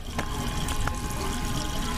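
A cat called 艾玛店长 (Aima the 'shop manager') laps from a running automatic water tap: a steady, hissing stream of water with a few soft, irregular licking clicks on top. No one speaks.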